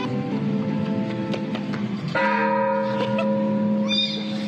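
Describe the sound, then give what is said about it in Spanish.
The church bells of the Templo de San Miguel in Comala, Colima, rung by children aged 8 to 10 swinging on the rope, ring loudly, their strikes overlapping into a sustained, resonant clang with a fresh bright peal cutting in midway; no voices are heard. “La inocencia de estos tres pequeños se ha vuelto viral en redes sociales sábado, las campanas del Templo de San Miguel en Comala, Colima, con un estilo muy particular.”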